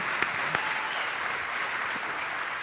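An audience applauds steadily to welcome a guest, a dense wash of many hands clapping at an even level for the whole stretch, with a couple of sharper individual claps standing out early on.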